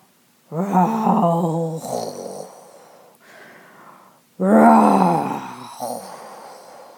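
A frightening, strange beast roar from the left side of a forest comes in two loud, drawn-out bursts with a rough, moaning, groaning tone. A quieter growl sits between them, and the second roar fades slowly.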